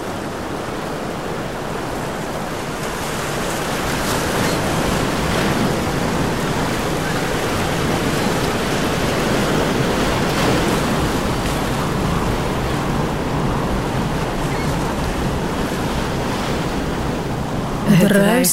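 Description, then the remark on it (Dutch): Steady ocean surf rolls and crashes continuously, mixed with a broad rush of wind, loud, with no voices for nearly the whole stretch until a brief sound at the very end. “Net boven de golven van de zee trekt en duwt, tot over kop, kop je onder en vraagt je mee.”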